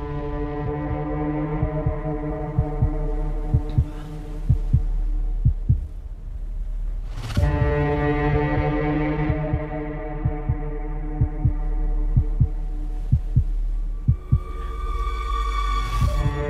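Tense, droning film score and ambience from an alien thriller film with little dialogue, with a low sustained hum and dense layered tones, punctuated by soft thudding pulses like a heartbeat and a sharp swell midway. No dialogue, just brooding atmosphere throughout.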